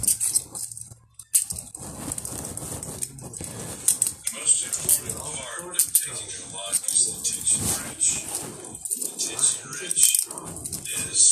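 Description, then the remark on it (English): A bunch of keys jingles and clinks repeatedly, bright metallic rattling that continues throughout while someone talks over it. “My keys my freaking keys. These actually have locks on them.”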